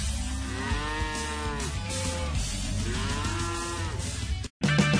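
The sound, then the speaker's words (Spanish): A cow moos twice in long, drawn-out lows with rising and falling pitch, loud over a steady background rumble, on Radio Cow, followed by a brief cut to a different sound. “Estás escuchando Radio Cow, donde las vaquitas hacen lo que quieren.”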